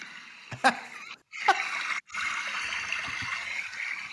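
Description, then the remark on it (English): River water rushes in a steady, hissing wash, broken by a couple of sharper splashes near the start and two brief dips where the flow sound cuts out. “I'm down at the river.”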